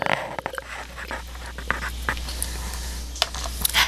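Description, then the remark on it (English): Someone takes a drink: soft slurping sips and wet mouth clicks with quiet breaths in between, a few sharper clicks scattered across the pause. No one speaks. “Hold on, let me take a sip of some drink.”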